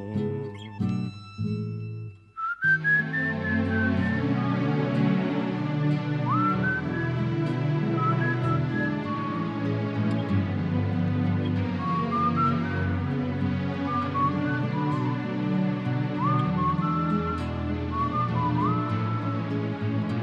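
A tango played on bandoneon and guitar, full and steady throughout, with a high gliding melodic line weaving over rich sustained chords after a brief, choppy opening.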